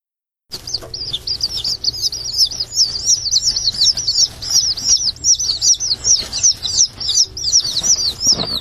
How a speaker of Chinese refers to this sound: 鸡妈妈醒了之后，鸡宝宝也跟着醒了。听，鸡宝宝在叽叽叽的说话。